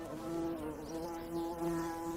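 Bees buzz steadily, a continuous droning hum with slight wavering pitch, heard on its own without any talking.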